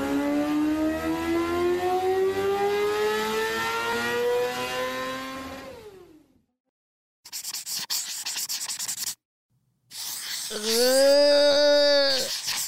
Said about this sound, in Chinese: 重型机车的声音好可怕哦！